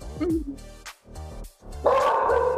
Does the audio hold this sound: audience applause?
no